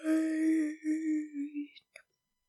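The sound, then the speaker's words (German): A long, drawn-out vocal yawn with a sustained voiced tone that wavers and fades over about two seconds, ending with a brief breathy catch. “Nein, ich habe gegähnt.”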